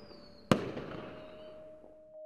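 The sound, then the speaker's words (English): A firework is sent up into the air in London and goes off outdoors with one sharp, loud bang whose echo rolls away and fades over the next couple of seconds. A faint high whine comes just before it, and no one speaks. “without someone sending up an accursed firework into the air.”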